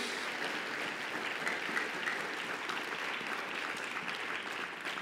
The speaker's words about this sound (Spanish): ¿Cuántos dan un aplauso?